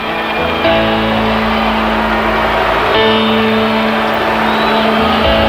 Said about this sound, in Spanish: Un minuto y medio ya de abucheo, más o menos.